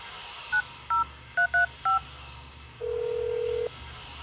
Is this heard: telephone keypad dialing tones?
yes